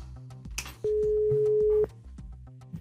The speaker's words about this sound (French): Euh, nous sommes en attente d'un numéro de téléphone. Attention, est-ce que quelqu'un a répondu Alors pas encore, ça y est, ça sonne. On y va.